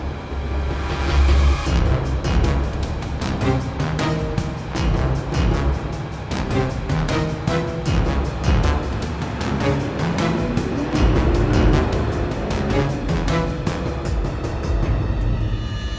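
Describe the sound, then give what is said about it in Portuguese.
Steady street traffic with a heavy rumbling vehicle, a fast rattling clatter like a tram running over rails, and a rising motor whine partway through, as a man changes from tram number 1 to a bus headed for Gaia. “Enquanto passa do elétrico 1 para um autocarro que o levará à Gaia, Nicolau de Almeida”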